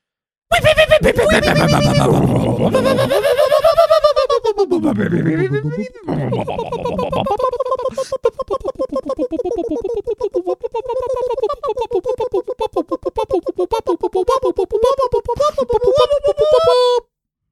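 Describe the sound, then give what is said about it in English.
A voice imitates a bunker alarm: loud swooping siren-like wails rising and falling, then a long, wavering, melodic warble that continues steadily for about ten seconds. “Uh, this bunker alarm is for you in three, two, one.”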